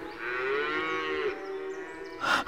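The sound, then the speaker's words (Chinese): A herd of cattle mooing as it is driven out to graze: one long, low, drawn-out moo with a rich harmonic tone holds for over a second, followed by a shorter, rougher call near the end. No one speaks. “有一天，当他赶着牛群去吃草的时候，他在丛林的狼哥哥跑来找他。”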